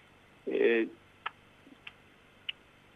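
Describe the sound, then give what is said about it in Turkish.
A short vocal burst, then three sharp, crisp tongue clicks spaced about half a second apart, as a person demonstrates clicking the tongue against the palate, a method used for echolocation. “diliyle damağını şaklatarak ses çıkartıyor.”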